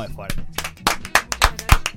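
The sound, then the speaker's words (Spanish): Small group applause to send off the guests at a table: a handful of sharp, irregular claps that scatter and overlap over two seconds without settling into a steady rhythm, with faint voices murmuring underneath. “Así que creo que para mí hay que despedirlos con un aplauso los muchachos.”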